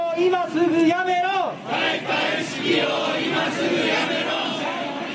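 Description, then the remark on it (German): A crowd of protesters in Tokyo during the Olympic Games chants and shouts loudly, criticizing the IOC. Drawn-out, raised voices open the scene, then a dense, continuous roar of many people carries on steadily, full. “Und so gehörten für Thomas Bach auch diese Proteste zum Sound of Tokyo.”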